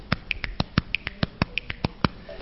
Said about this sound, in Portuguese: E uma das coisas que eu dei atenção era esse som do corpo, inicialmente um som da batida da mão no peito, o estalo,